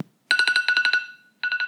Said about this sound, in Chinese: 早上六点三十分，闹钟又响了一次。